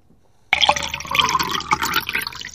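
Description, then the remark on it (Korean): Canned beer pours into a glass with a steady, fizzy rush that starts abruptly after a brief silence, fairly loud, followed by a couple of light glassy clinks of a toast. No one speaks. “캔맥주 따르고 건배까지 하는 겁니다.”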